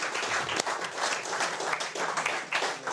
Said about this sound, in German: Großartigen Applaus bitte für den Fuchsbau Schifferstadt für die Ausrichtung vom Betze-Spätzchen.